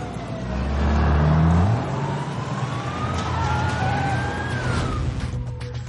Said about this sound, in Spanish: Los coches patrulla apostados en la entrada de la fábrica se apartan para dejar paso a los coches blindados de los GEO.